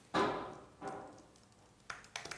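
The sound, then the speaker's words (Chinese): Hammering on a wall: a loud first blow with a ringing decay, then a second strike and a quicker cluster of sharper knocks near the end, irregularly spaced. No one speaks. “大家现在那个能听到就是砸砸墙的声吗？”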